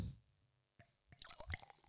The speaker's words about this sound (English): There you go. The sound nothing nothing sounds better than a pouring beer. Yeah. Or drinking it.